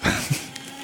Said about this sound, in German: Das beste Gerät für den Podcast. Einfach ein Aktenvernichter.